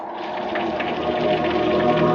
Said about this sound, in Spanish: Solo se oye el viento y la lluvia.